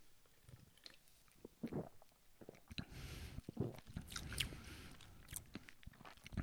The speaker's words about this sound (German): So, bevor wir gleich zu den Picks kommen, wollen wir doch mal auflösen, wie schmeckt denn nun diese Bluna Orange. Nehmen wir nochmal einen Schluck.